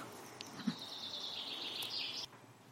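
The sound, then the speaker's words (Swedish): Faint birdsong inside a glasshouse at Sofiero: a thin, high, sustained trill lasting nearly two seconds, with a few short chirps around it, heard alone over a quiet background hiss. “med eh, ackompanjerat av fågelsång och så känna lite god rostoft också.”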